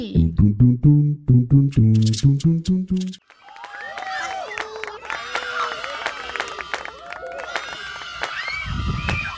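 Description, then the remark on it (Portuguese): A crowd of children and babies shouting and crying all at once at a protest in an outdoor area, a loud, chaotic, continuous din, following a brief sung melodic phrase at the start. “eu acho que é um protesto e, pelo visto, é formado por bebês e crianças lá na área externa.”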